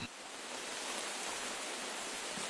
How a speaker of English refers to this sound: Is that rain? I'm hearing rain. Is it raining? I, I hear the, the sound effect as well.